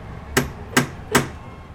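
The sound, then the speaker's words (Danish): Three sharp, evenly spaced knocks on a closed door, each a crisp loud rap about 0.4 seconds apart, with no voices and only faint background noise between them. “Jeg kommer ind, banker på døren.”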